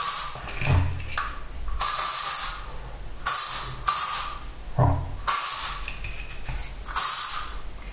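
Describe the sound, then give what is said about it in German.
A nearly empty deodorant spray bottle hisses in four short bursts at a steady, unhurried rhythm, each a bright, airy spritz with brief pauses between. A voice briefly says one word. “Die Flasche ist ja auch bald alle. Naja, so wie alles bald alle wird. So ist es im Leben. Genau. Ein bisschen sprühen.”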